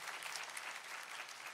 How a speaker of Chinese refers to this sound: 愿意的拍手，把荣耀归给主，好不好？哎，大声的拍掌，大声的拍掌。